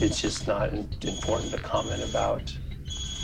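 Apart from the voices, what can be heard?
mobile phone ringing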